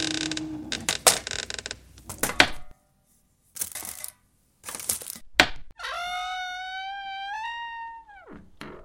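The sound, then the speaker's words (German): Several sharp cracks and scraping bursts as a locked door behind a building is pried with a crowbar, with brief pauses, then a long, tonal creak that rises in pitch as the door swings open. “Tür ist auf.”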